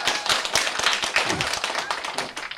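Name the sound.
audience applause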